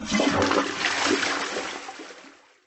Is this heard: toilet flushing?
yes